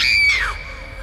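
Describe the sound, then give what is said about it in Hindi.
A woman lets out one short, piercing scream of fright, loud, its pitch sliding downward before it trails off into a faint low rumble; she screams on seeing a face at the door while trying to open it. “वो बार बार दरवाजा खोलने की कोशिश कर रही थी अचानक उसे दरवाजे की तरफ एक चेहरा नजर आया और वो चीख उठी”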